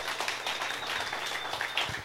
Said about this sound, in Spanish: Otro aplauso a ellas